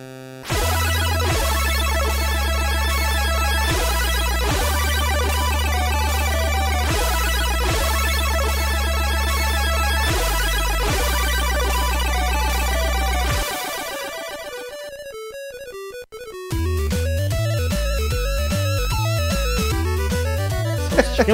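Retro music from the video game Solstice, with bright, buzzy chiptune tones over a pulsing bass line in repeating phrases, then a brief thin passage before a choppier, bouncing arpeggiated section. Loud, no voices.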